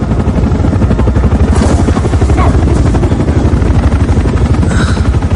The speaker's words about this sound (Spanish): El helicóptero se aleja de la central.